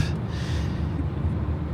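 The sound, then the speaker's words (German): Someone in the background has a coughing fit, with rough, breathy hacking and gasping that runs on without a break. No one is talking. “hustet sich hier einen ab”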